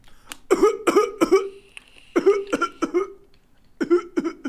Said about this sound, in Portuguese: Pronto, já tossi, agora me dá.